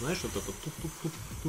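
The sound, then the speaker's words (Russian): A man's voice imitates the crackle of a computer hard drive with a quick run of short, repeated clicking syllables, moderately loud, right after a few spoken words. “а скоро будет такой вот шум кулеров еще, вот это потрескивание винта, вот это вот”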